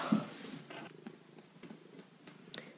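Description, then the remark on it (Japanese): A growing cat named Ran-chan purrs in a steady, low rumbling rhythm, with a few soft clicks and rustles over the top and no one speaking. “らんちゃん来たあなたまたちょっと成長したね大きくなったね”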